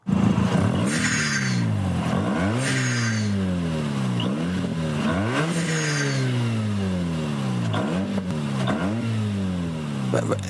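A Mazda RX-8 rotary engine revs hard again and again, its pitch sweeping up and dropping with each gear change, a loud, buzzy whine that runs steadily for the whole stretch.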